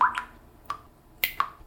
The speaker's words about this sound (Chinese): 小鹰一边飞一边汗已经滴答滴答的流了下来。